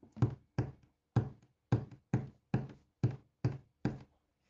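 Nine sharp taps strike a window in a steady, unhurried rhythm, each one crisp with a short, dull ring. No voices, only quiet between the hits.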